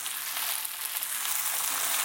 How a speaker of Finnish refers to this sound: Sitten tossa toi hillo kivasti pulputtaa tossa vieressä